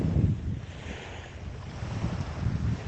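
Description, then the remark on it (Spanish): Steady rumbling wash of sea waves with heavy wind buffeting the microphone, a continuous low roar that swells and eases slightly, no voices. “Escucha ese mar ese mar que está aquí para ti, para que lo disfrutes, para que te des cuenta”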